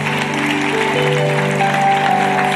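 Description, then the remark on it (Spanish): A church audience applauds the Lord steadily and loudly at an evening service, a dense wash of clapping that fills the whole moment, with sustained keyboard chords ringing underneath. “Le un aplauso hermoso al Señor esta noche.”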